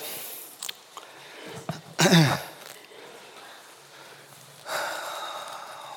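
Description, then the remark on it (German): Several short, wet nasal sniffs and snorts come in irregular bursts, ending with a longer breathy hiss, as children sniffle with runny noses and coughs. “Ich höre ein paar Pfnüsseln von euch. Husten und Pfnüsseln.”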